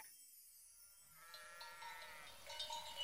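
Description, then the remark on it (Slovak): A flock of sheep bleats in a pen, several overlapping wavering calls building over a few seconds, with no one speaking. “Nože vyžen tie ovce z ohrady, nech sa napasú čerstvej trávy.”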